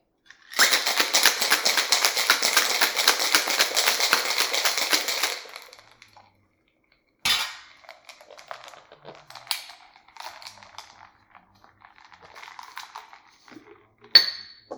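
A cocktail shaker holding ice, fresh lemon juice, Cointreau and simple syrup is shaken hard for about five seconds, the ice rattling in a fast, steady rhythm. It stops, then comes a sharp knock followed by scattered clinks and metallic scrapes as the lid is worked off.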